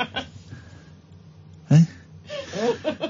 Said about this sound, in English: You're laughing, but then you're also doing that retching noise you do when you see my cats have sicked up.